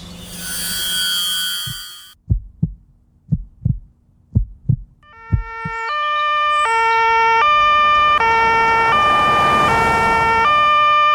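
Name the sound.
ambulance siren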